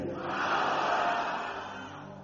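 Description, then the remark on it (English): A large church audience shouts the word "power" together in one loud, sustained collective roar that swells quickly and fades gradually over about two seconds, with no single voice standing out. “Someone shout power. Let the devil hear you.”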